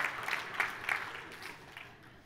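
A church audience breaks into scattered applause and light cheering for a new staff member, swelling briefly, then fading away within a couple of seconds, moderately quiet.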